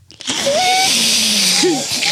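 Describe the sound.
Several voices together make a loud, sustained slurping, sucking noise with wavering whistly tones, lasting about two seconds, a group imitating a sucking sound in unison.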